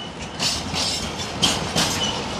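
Freight wagons of a train that has arrived at a marshalling yard roll slowly before being pushed over the hump to be split up and re-routed; a steady rumble with recurring clanks and brief metallic squeals, with no voices.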